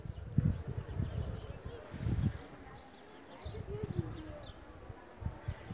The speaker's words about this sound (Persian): اینجا دوباره یه پیچه این صدای پرنده هاست که نزدیک غروب دارن میخونن